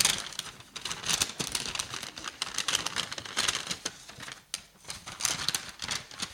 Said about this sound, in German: Das ist der Überwindersack. So, das ist so der Abfallbeutel, in dem ich alle meine Sünden reinstopfe, wenn ich sie erkenne.